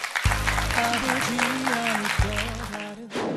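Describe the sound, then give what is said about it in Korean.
An audience claps steadily in a dense wash of applause offered as thanks to God, joined by sustained tonal sounds like music or voices underneath, with a brief dip near the end before the clapping resumes. “우리 하나님께 다시 한번 감사의 박수 올려드리겠습니다.”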